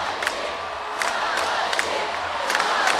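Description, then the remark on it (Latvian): A large crowd of fans chants "Malači, Malači" together in the background in rhythmic, repeated bursts, the voices blending into a dense, steady roar, during a flower-laying ceremony at the Freedom Monument. “Jūs arī dzirdat fonā līdzekēji sauc Malači Malači.”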